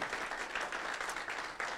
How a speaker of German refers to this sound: Lass uns den Menschen bitte einen kräftigen Applaus schicken.